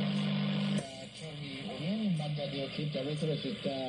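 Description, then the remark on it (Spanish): A faint radio transmission, seemingly a muffled voice, struggles beneath a thick, steady wash of buzzing QRM interference caused by a human-made device, heard without the noise canceller, staying loud and constant throughout. “recibir la señal por debajo del QRM, con lo cual no la vamos a recibir.”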